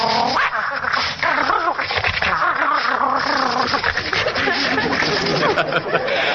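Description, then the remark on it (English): A person imitates a dog that feels like playing, with a loud, unbroken run of yappy, whiny vocal noises that slide up and down in pitch for several seconds. “feels like playing, he'll sound like this.”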